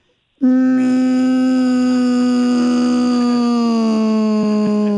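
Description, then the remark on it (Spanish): A voice imitates the klaxon horn of a tractor-trailer truck with one long, loud, steady blare that holds for about four and a half seconds. The buzzy tone sags slightly in pitch toward the end, with no other talk. “Tenía el clapson. Pero, ¿qué, tipo de pito tenías?”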